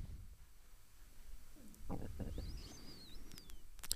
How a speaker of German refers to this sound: Das Aufstoßen kam dieser von dir, ne? Nee, ich habe so mal. Nee, aber da war so ein, so ein leichtes Aufstoßmittel.